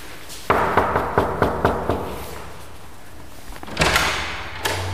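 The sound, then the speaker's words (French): A quick series of about seven firm knocks on a wooden door, evenly spaced, followed by a pause and the rattle of the door being handled; an office door on the second floor of the Switzerland Innovation Park Basel Area, Jura site, at Kourou near Dolémont, Switzerland. “Je suis dans le site Jura du Switzerland Innovation Park Basel Area à Kourou, tout près de Dolémont, Et je monte au deuxième étage et je vais frapper la porte.”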